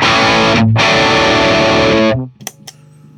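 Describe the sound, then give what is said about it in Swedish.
A distorted electric guitar chord through a distortion pedal on its strawberry setting, gain turned down to about eleven o'clock, rings out with a gritty, saturated classic rock crunch, briefly re-struck, then held for about two seconds before being cut off, leaving a couple of faint pick scrapes. “Bra classic rock-ljud.”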